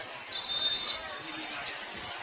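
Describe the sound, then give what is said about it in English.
A single short, shrill referee's whistle blast sounds over steady crowd murmur at an American football game between Lewisburg and Loyalsock, signalling a Loyalsock timeout, the background chatter continuing after the whistle fades. “Just heard a whistle.”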